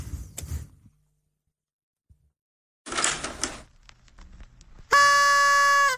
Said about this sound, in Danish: det er hornet først.